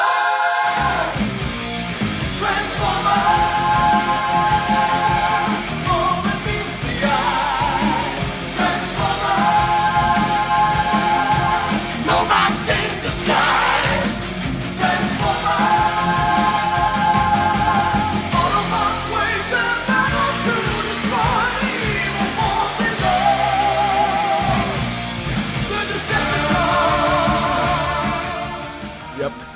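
A loud heavy metal theme song plays over a movie's opening, with dense distorted guitars, pounding drums and strained sung vocals rising in repeated phrases over a constant, driving wall of sound.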